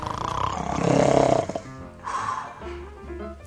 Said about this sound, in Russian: Потом и сторож начал клевать носом. Голова у него клонилась все ниже и ниже, и вскоре они храпели оба.